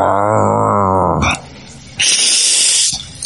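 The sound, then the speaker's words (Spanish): A loud, drawn-out rumbling growl like a hungry stomach, apparently voiced by a person, followed by two bursts of breathy, hissing noise. No talking. “Qué fuerte cuando la tripa ruge.”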